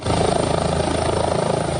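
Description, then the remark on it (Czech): An air rescue service helicopter, flying a patient to the Motol university hospital, roars loudly and steadily as it departs, its rotor blades beating in a rapid, rhythmic chop over a dense engine whine, with no voices. “Takže jsme se šli potom zbalit rychle věci, když odletěl vrtulník.”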